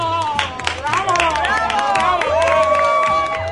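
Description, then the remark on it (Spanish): A large bullring crowd cheers and applauds with shouts of olé as the bullfighter is carried off before the viceroys. A dense wash of clapping sits under many overlapping shouts and rising voiced cries, loud and sustained throughout. “El público pidió el indulto y Romualdo fue llevado entre aplausos y olés ante la presencia de los virreyes, seguido de los quiquiricuates.”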